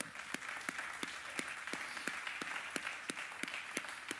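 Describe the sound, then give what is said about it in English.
A crowd claps hands together, with steady applause and a few sharper individual claps standing out at a fairly regular rhythm throughout. “Somebody give him another hand clap.”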